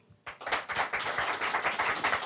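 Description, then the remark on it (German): About three audience members, out of roughly 400 present, clap after a short silence in answer to being asked who likes football. Their uneven claps overlap into a thin, steady patter that continues throughout without any talking. “Wer mag Fußball hier? Bitte einmal klatschen.”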